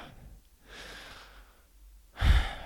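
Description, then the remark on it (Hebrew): A slow, airy inhale is followed after a pause by a louder, forceful exhale, one deep breath taken alone with no talking. “אבל אם תיקחו נשימה”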